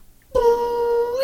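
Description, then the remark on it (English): A voice imitates an elevator shooting upward: one steady hum held for about a second, its pitch creeping slightly higher at the end, with no other sounds around it. “That's the sound of the elevator going up super fast.”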